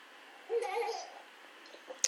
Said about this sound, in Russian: Так, детские радостные голоса, это здорово.